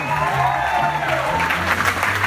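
A live audience at a stand-up comedy show claps steadily throughout, a dense wash of applause, with a low hum or music bed underneath and no one speaking over it.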